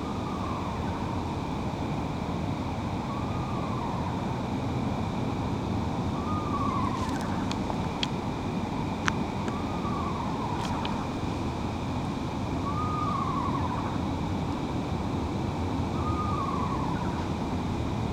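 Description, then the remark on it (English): An eastern screech owl sings softly, being quiet rather than far off, repeating a short slurred whistle, rising then falling, about every two and a half seconds over a steady rushing background, with a few faint high ticks; the bird is straight above the listener. “This is what I mean by being a bird that can really sing quietly if it needs to.”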